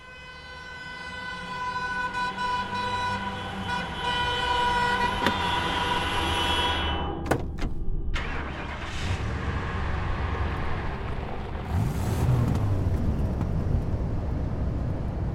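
A car engine hums steadily while driving at 7 in the morning on the way to Isla Paulino, an island southeast of Buenos Aires, Argentina. A continuous low road rumble runs throughout, with a sustained horn-like tonal drone over it during the first half before fading to plain engine noise.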